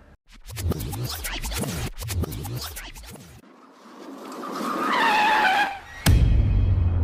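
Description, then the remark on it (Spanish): Rapid scraping footsteps of two people running at full speed give way to a car's rising engine and a loud, drawn-out tire screech as the car approaches, ending in a sharp impact followed by a low rumble. “Nayeli y Serimar comenzaron a correr a toda velocidad mientras el auto se acercaba”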